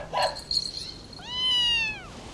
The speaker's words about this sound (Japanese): こいつは山猫の一種で名前はピートって言うんだピートが怖がってるからそろそろ失礼するよ